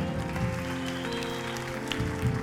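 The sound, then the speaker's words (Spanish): An audience at a morning church service applauds God steadily for a couple of seconds, the dense clapping wash sitting over sustained low musical tones, with no voices standing out. “¿Alguien puede darle a mi Dios un aplauso bien fuerte que esta mañana?”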